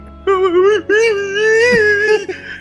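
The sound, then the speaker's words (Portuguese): A voice mimics sobbing with two drawn-out, quavering wails: a short cry, a brief catch of breath, then a longer moaning one that trails off. It is loud, with no other sounds. “Aí, cara, eu perguntei, o que você tá chorando?”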